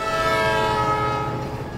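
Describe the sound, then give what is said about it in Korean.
A loud, sustained locomotive horn blares over heavy rumbling rail noise, with a steady metallic squeal as the driver applies the emergency brakes after a woman steps onto the track, fading slightly toward the end; no voices. “기관사는 급브레이크를 그 밟았지만 이미 때는 늦었다.”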